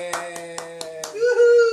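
one person clapping alone

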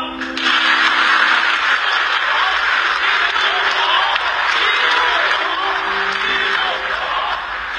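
audience applause

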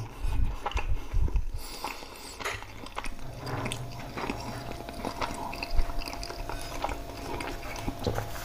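chewing pizza

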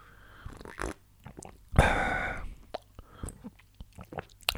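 sipping coffee

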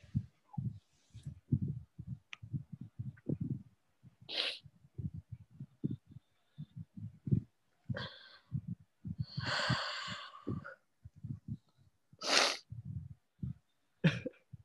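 sniffling nose

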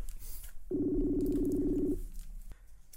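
telephone dialing tones

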